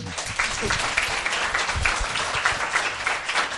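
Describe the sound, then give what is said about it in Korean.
Sustained audience applause at a live talk event fills the whole stretch, a dense, steady patter of many hands clapping at once, fairly loud, with a faint murmur of voices underneath. “박수 한번 주세요.”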